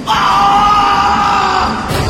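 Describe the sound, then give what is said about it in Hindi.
A man lets out a single loud, sustained scream of pain lasting over a second as he tries to get up after stumbling in the dark and falling hard on his face and knees onto a railway track, raw, then breaks off into a short ragged gasp with no other voices. “मैं पीछे पीछे भागते हुए अचानक से अंधेरे में लड़खड़ाया और बुरी तरह मुंह के बल गिर पड़ा मैंने उठने की कोशिश की तो मेरी चीख निकल गई”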